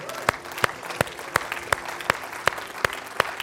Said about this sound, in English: And anybody that's thankful, give the Lord a clap and a shout off him right now.